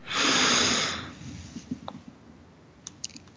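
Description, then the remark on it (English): One deep sniff of breath drawn in through the nose during a mindful breathing exercise, a loud airy rush lasting about a second, then near-silence with a few faint little clicks. “You can tell that voice to be quiet for a moment, take a deep breath in,”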